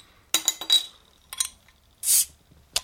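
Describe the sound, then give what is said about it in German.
Clinks of glass bottles of non-alcoholic beer knocking together, a sharp hiss of a bottle cap popping open as a beer is opened, and a final bright clink, all without any talking. “Ähm, zunächst aber mal würde ich sagen, wir machen uns jetzt erstmal unser Bier auf, ja.”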